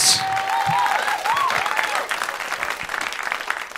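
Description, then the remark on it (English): A live audience applauds loudly and steadily, with a few whistles and cheers rising over the dense clapping in the first couple of seconds before it settles into sustained applause. “y'all ready y'all ready for that make some noise one time”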